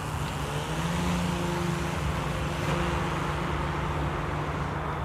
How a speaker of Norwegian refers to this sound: Jo, ehm, det du hører her, det er en amerikanskprodusert Puma-drone. Den har jeg sett i lufta, og da jeg var nede på flyplassen Oi. på Rygge.